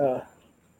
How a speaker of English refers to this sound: that noise you heard is, my, is, one of our dogs in the background.